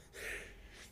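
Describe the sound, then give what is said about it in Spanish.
A single sneeze, the speaker's second, bursts out as a sharp, breathy hiss that lingers for most of a second. It is loud, with no talking around it. “Segunda. Salud.”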